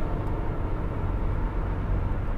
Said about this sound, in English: you know, the car um, and being on the road, on the freeway, driving down the 210 right now.